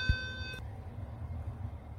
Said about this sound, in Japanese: はい、今途中で収録をね 止めちゃったんですけどえ思いっきり来訪者のチャイムの音が入ってしまいましたね。